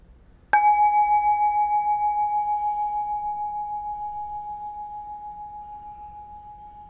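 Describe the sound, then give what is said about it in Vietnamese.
A single bell is struck once, marking the end of a guided breathing and relaxation exercise, and rings on with a clear, sustained tone that wavers gently as it slowly fades over several seconds, heard alone. “khi nào mình nghe dứt tiếng chuông nhẹ nhàng mình mở mắt ra”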